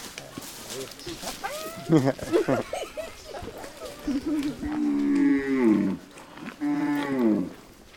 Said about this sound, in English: while we are a bit more careful as we approach a group of cows.